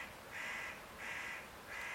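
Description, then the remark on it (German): A spotted nutcracker in a neighbouring tree gives three harsh, rasping calls in a steady rhythm, each about half a second long, with no talking. “Und jetzt haben wir ihn gehört, den Tannenherr. Er ist auf dem Nachbarbaum.”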